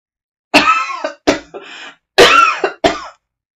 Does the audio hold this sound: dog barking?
no